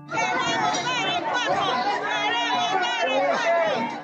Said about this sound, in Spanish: No mucho después de que empezó la necropsia, con la noticia ya circulando por todas partes, las afueras de la morgue se llenaron de personas. Ya había gente afuera gritando, haciendo barras.